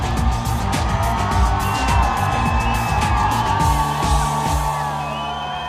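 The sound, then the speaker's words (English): A large crowd cheers wildly, a steady roar of overlapping yells and whoops, with high whistle-like tones running through it. The noise stays loud for about six seconds and eases slightly at the end. “And the crowd goes wild!”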